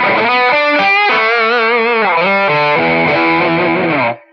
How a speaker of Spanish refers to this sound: Y, yo no, entendía por qué la guitarra sonaba así, ¿sí? Y, yo, mi vida se volvió, o sea, yo le dije a mi papá como, que es eso? Y mi papá me decía, no, nene, es que eso es un distorsionador, me decía mi papá.